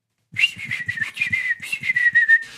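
A person whistles a smooth, sustained melody, the tune gliding between notes with light rhythmic accompaniment tapping underneath for a couple of seconds.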